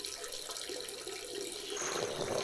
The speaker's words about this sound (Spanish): Bueno, vamos a quedarnos calladas. vamos a ver cómo suena el chorro.